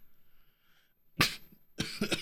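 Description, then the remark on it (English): A sudden, loud sneeze bursts out, followed moments later by a few quick, harsh spasms in a tight cluster. “Bless you.”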